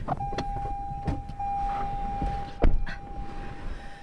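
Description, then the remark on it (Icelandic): Inside a car as it sets off on a short drive: a steady electronic chime tone runs under several sharp clicks and thumps, over a low engine rumble, with no talking. “Og við byrjum á að fara í smá bíltúr.”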